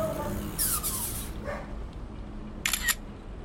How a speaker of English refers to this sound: Oh, look! Stop! I'm taking a picture.